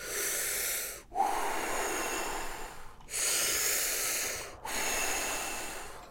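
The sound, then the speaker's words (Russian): Deep, forceful breaths drawn in and pushed out as part of the Wim Hof breathing technique of 30 intense full inhales and exhales. Each long airy rush follows the last at a steady, moderate pace with only brief pauses between them. “Эм, ты делаешь 30 интенсивных вдохов и выдохов, таких типа, чтобы полностью вдохнуть, полностью выдохнуть.”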